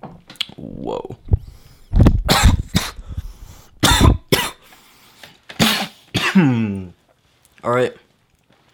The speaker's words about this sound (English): I hope my coughing noises have been a good start to this podcast.